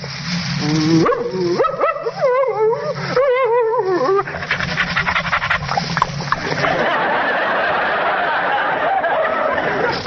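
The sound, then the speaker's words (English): A man's voice imitates a friendly dog with a run of eager yips, whimpers and soft barks for about four seconds, then gives way to a noisy hiss. “in a script, I may be called upon to be a friendly dog like this.”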